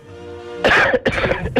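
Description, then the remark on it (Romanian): A person coughs on request, a deep, deliberate cough bursting out after a brief quiet lead-in, followed by a couple of shorter, rougher coughing pulses, loud with no talking. “apropo, hai tușești un pic pe, uh, pentru mine acum, la, la final, vreau să văd cum tușești.”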